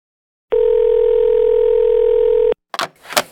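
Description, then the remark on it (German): A steady, loud telephone dial tone hums for about two seconds as a call is placed and then cuts off abruptly, followed by a couple of brief, sharp clicks. “ich schalte jetzt mal ähm, um ins Telefonat und ähm, ruf mal”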